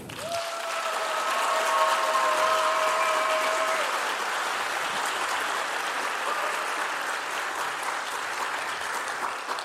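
A live audience claps steadily for several seconds, a dense, even wash of applause. A few brief whistles ring out over it near the start, then the clapping continues and slowly tapers.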